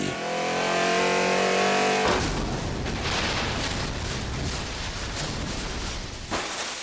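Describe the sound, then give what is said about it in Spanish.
A luxury car's engine revs hard as it accelerates to 180 km/h for about two seconds, then a sudden loud crash as it hits a pole on Paseo de la Reforma in Mexico City and splits in two, crunching metal and rough noisy debris continuing to the end. “El auto choca contra un poste en Paseo de la Reforma en Ciudad de México y se parte en dos.”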